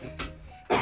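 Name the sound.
cough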